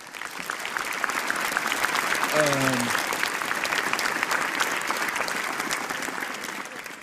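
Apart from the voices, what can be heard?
audience applause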